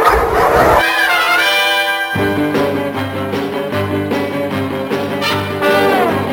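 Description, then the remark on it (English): Dogs bark and yip loudly, a run of repeated barks layered over sustained tonal, howl-like sounds and a low rhythmic backing, with no one talking. “And, and dogs aren't gay. Uh, ask one. Say hello to my little friends.”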